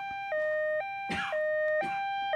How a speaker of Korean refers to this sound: 그리고 저 멀리 앰뷸런스 소리가 들려왔죠.